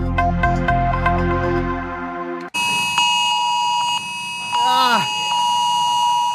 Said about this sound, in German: Um 11 Uhr haben die meisten Handys, die dies können, äh, bei uns in Essen geklingelt und ebenso geklungen und eine Testwarnung angezeigt